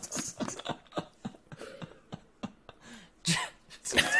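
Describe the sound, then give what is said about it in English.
Quiet sips of water during a water break: a string of short wet slurps and mouth clicks, ending in a couple of louder gulps, with faint breathy murmuring between them. “You got to take a sip sometimes just to reset.”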